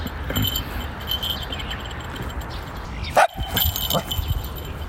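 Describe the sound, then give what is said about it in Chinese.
A small dog that has come over lets out a sharp, high, fierce yap, followed shortly by a fainter second bark, against a steady hiss of background noise. “嘿，过来了一个小狗狗。”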